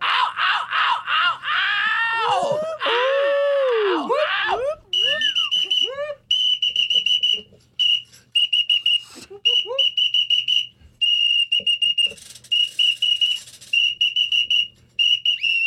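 Shrill whistles blast repeatedly and loudly, some sustained and some in quick bursts, mixed with swooping squealing tones and wailing cries, several blown at once close to the microphone.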